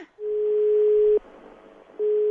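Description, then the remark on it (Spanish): During a phone-in call, a steady, fairly loud telephone line tone sounds for about a second, breaks off into faint line hiss, then starts again, like a ringing phone line heard through the receiver. “Sí, sí a ver, está sonando.”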